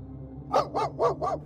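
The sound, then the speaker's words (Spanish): A dog whines at the back door of a house at night in four short, rising-and-falling bursts in quick succession, clear over a low steady background hum. “Uno de los perros estaba en la puerta trasera, quejándose y rascándose.”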